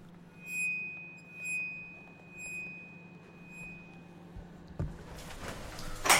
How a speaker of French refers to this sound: ces vibrations de la plaque sous le frottement de l'archet qui font apparaître des étoiles, des arches, des vagues